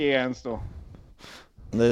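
A man fakes a yawn, a drawn-out voiced exhale broken by a breathy intake, then sliding into another loud, stretched groan. Clear, with no other sound.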